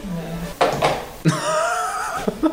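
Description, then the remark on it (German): A telephone handset is lifted and set back down, making a few plastic knocks and clatters, with muffled voices and a short laugh in the background between the clunks. “haben sie jetzt abgehoben und aufgelegt.”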